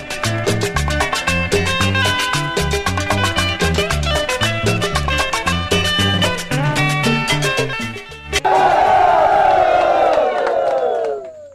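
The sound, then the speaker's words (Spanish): Rhythmic music with a steady beat plays for about eight seconds, then cuts to a loud crowd of Amazonian indigenous people shouting a collective cry, with falling, drawn-out yells that fade near the end. “Lo que escuchamos fue el grito de los pueblos indígenas amazónicos que han visto su día a día, su quehacer social y sus labores económicas afectadas por la expansión del nuevo coronavirus.”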